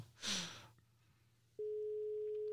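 A phone line's ringback tone sounds once, a steady, clear pitched beep lasting about a second, after a soft breathy exhale and a quiet pause.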